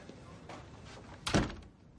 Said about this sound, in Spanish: Se levanta y cierra la puerta.